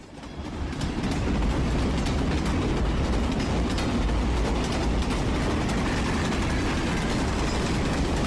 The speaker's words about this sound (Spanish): historia sonora es de trenes porque les hablaremos de un tren de carga que recientemente fue protagonista de un suceso que cimbró a toda una comunidad y que nos hace hoy estar hablando de ello.